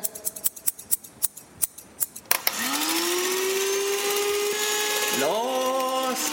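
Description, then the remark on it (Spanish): Quick, crisp scissor snips repeat in a steady rhythm for a couple of seconds, then give way to a loud, sustained electric whirring that briefly dips and climbs in pitch. “Alcánzame las tijeras.”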